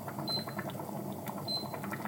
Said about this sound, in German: aber dieses Blubbern, wenn so eine Suppe vor sich hin kocht, ist auch, köchelt, ist auch. Aber am besten finde ich Brühe, wenn die so wallt. Man meint ja, man kann es nicht hören, aber das hört man.